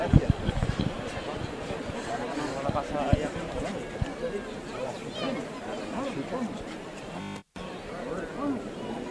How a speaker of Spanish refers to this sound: toca el martillo, vamos a escuchar la llamada, se va a levantar el paso de Misterio La Resolana.